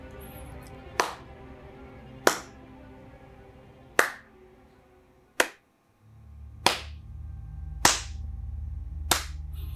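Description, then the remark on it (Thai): Seven sharp, sparse hand claps ring out one after another at uneven intervals of about a second, moving around a house from the front toward the right, their brightness shifting, over a low steady background hum. “ก็บอกแค่แค่ว่าตบมือครั้งหนึ่งสองครั้งใช่ไม่ใช่หรอ”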